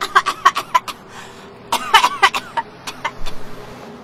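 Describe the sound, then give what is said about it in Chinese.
Pipi the mouse coughs after smelling sausage for the first time: a series of short, squeaky coughs in two quick bursts, high-pitched and sputtering like a tiny creature choking, with a brief pause between the fits. “还有那些陌生的味道，皮皮第一次闻到香肠的味道，呛得直咳嗽。”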